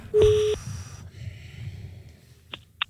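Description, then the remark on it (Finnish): A phone number being dialed to place a call: a short electronic tone sounds first, then after a pause two quick, crisp key beeps follow, fairly faint, with no one talking. “Anna, anna mä soitan, mä kysyn, mä kysyn.”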